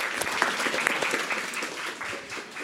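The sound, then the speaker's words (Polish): An audience applauds a professor steadily, a dense wash of many hands clapping at once, sustained and even throughout with no voices standing out. “E, bardzo dziękuję panie profesorze, ale proszę, proszę o brawo oczywiście, jeśli państwo mają ochotę.”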